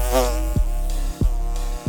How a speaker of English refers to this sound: Um, so probably the, the top area we're looking at now on, on the crown board we probably will have um, worker bees that will be processing honey, hopefully. We hope.